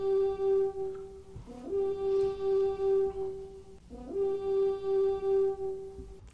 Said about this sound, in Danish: turet hornet ikke også hver eneste gang, der er en ny første down, eller er det kun, når I scorer? Nej, ah, nej, alle første downs. Alle første downs, ja.